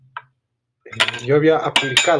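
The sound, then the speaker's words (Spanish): A few sharp metallic clinks of a metal can being knocked or handled ring out, one briefly on its own and then several under a person talking. “perdón por el ruido, es una lata aquí”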